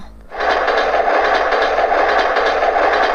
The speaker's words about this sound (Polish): Metro. Tak, tak, kochana Zazi, to jest metro.